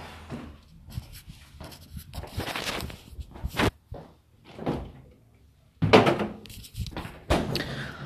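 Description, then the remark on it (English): A partly full Coke can being put into a fridge: a door opens, then a series of clunks, knocks and rustling handling noises, and a firm thud as the door shuts. No one speaks. “I put the Coke can in the fridge.”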